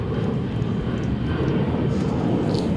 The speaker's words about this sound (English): plane, plane, plane. Wonder where they're off to. Everyone has to drink when there's a plane.